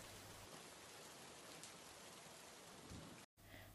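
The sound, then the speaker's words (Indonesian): Light rain drizzles steadily at seven in the evening after a heavy downpour has eased, a soft continuous patter and hiss with no voices, briefly cutting out near the end before resuming. “Setelah lama berbincang, tidak terasa, hujan yang tadinya deras menjadi sebuah rintik-rintik kecil, dan jam sudah menunjukkan pukul tujuh malam.”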